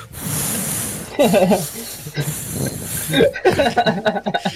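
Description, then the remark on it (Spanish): Loud breathing hisses into a microphone in long airy bursts, mixed with murmured voice sounds and breathy vocal noises. “Más bien quita las voces el, y deja la respiración.”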